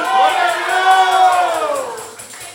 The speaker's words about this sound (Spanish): Habrá gente que pueda gritar gloria a Dios aquí hoy.